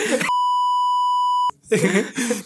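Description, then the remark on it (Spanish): A single loud, steady censorship bleep lasting over a second cuts into speech, with talking just before it and resuming right after. “Entonces ya, lo tengo que flipar, perdón.”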